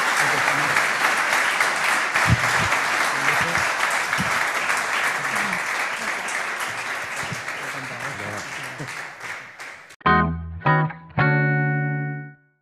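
A large audience applauds at the end of a speaker's talk, clapping steadily for about ten seconds, a dense, loud wash of applause that slowly fades. It is cut off by a couple of short, bright electronic musical tones.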